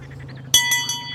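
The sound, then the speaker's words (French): A boat's bell, rung by a passenger who spotted a catfish in the water, rings out three times in quick succession, bright metallic strikes with long shimmering overtones that overlap, over a low engine hum. “Dans l'eau, si vous voyez un silure, pas tous du même côté, et le premier qui voit un silure aura le droit de sonner la cloche.”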